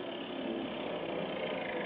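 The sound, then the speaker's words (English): A motorboat engine drones steadily, a continuous rough rumble with no breaks or changes in pitch, and no voices over it. “Emmett cut the motors, and we drifted into the beach.”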